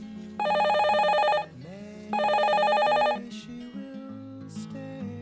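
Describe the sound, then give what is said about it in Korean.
A telephone rings twice in loud, buzzy bursts about a second long, separated by a short pause, over a soft musical background. “이렇게 전화 통화를 나누기도 했으며”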